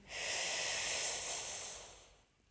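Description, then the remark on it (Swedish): A long, steady inhale drawn through the mouth over a rolled tongue during a breathing exercise, an airy hiss lasting about two seconds before fading out. No one speaks. “Andas in genom munnen, genom med rullad tunga eller stängda tänder.”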